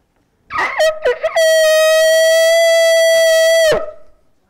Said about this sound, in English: So I just brought my shofar here so you know what kind of trumpet we're talking about.